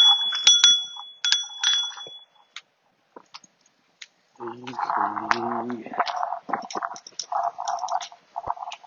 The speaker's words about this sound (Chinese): 喂，滴滴，哎，我自己滴滴一下子。啊，对，我这有车铃哈，但有时候车铃显得有点愣。